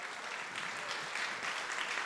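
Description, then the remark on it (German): A crowd claps steadily and densely, a continuous wash of many hands applauding at a fairly even loudness, with no clear voices on top. “Applaus an Applaus Moritz.”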